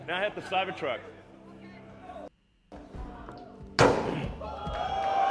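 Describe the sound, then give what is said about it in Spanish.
A heavy blow slams into a regular car door during a durability test, in comparison with a Cybertruck, with a loud, sharp thud after a brief pause, ringing out over a noisy background of voices and crowd chatter. “Y básicamente las pruebas que le hicieron para ver si funcionaba o no era darle de hostias literalmente, pero todo el rato.”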